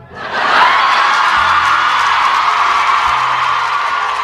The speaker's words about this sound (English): Listen to those kids' cheers, folks. Some of them didn't want her there.